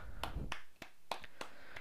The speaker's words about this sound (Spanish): Y ya se puede se puede oír los, los aplausos. Oigan, oigan, oigan.